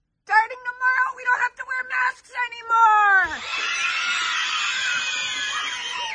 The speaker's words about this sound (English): No, these kids were celebrating, jumping up and down, so happy that they can take these masks off.